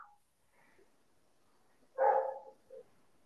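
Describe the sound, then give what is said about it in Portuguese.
A dog gives one loud bark followed by a brief softer yip, with quiet background before and after and no one talking. “Só o cachorro respondeu.”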